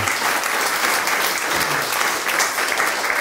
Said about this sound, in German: Und da dieser Film nordkoreanisch gehalten war, möchte ich jetzt von Ihnen auch, meine Damen und Herren, einen nordkoreanischen Applaus hier im 14. Stock.